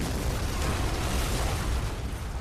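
A loud, sustained explosion roar as a taxi blows up, with dense rumbling noise holding steady for a couple of seconds and no voices over it.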